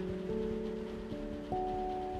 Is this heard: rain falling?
yes